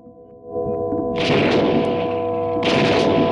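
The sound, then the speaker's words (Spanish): Two loud gunshots ring out about a second and a half apart as Chapman shoots John Lennon in the back outside his building, each blast sharp with a long reverberant tail, over a steady low droning background. “Los primeros dos disparos impactan en John en su espalda, haciéndolo girarse, mientras que otros dos impactarán en su hombro.”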